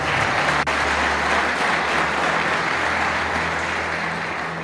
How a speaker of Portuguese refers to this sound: Aplauda bem forte o Senhor, porque Ele é bom.